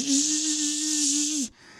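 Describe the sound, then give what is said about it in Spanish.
A voice imitates a female mosquito in flight while telling a joke, with a steady, loud, nasal buzz held for about a second and a half before cutting off abruptly, with nothing else underneath. “Fíjate que estaba una zancuda una zancuda Ay, le voy a hablar por teléfono la zancuda volando.”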